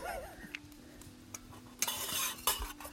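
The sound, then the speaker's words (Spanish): A spoon stirs and clinks against a cup of coffee in short bursts, then a brief hissy pour of milk, quiet with no talking. “Ah, tiene que hacer, echarle leche hasta que haga montañita.”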